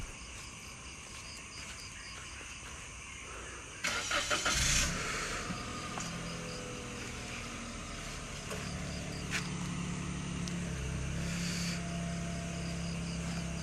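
A parked car is unlocked with a short, sharp burst of sound, and a few seconds later its engine starts and settles into a steady idle while insects chirp faintly in the background.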